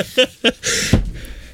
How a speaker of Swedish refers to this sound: Är hunden inne? Flåset är igång.